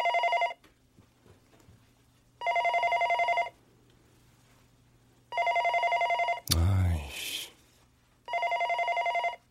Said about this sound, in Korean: 아, 누구 전화 좀 받지. 다들 어디 간 거야?